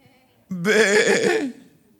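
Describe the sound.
A person imitates a sheep with one drawn-out, quavering bleat, a wavering nasal 'baa' lasting about a second, fairly loud, with silence on either side.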